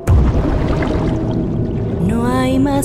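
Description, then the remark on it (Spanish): A heavy splash as two people lose their balance and fall into the cold water of a fountain, followed by continuous churning, pouring water, with a faint rising tone sweeping in near the end. “Perdemos el equilibrio. Los dos caímos dentro de la fuente”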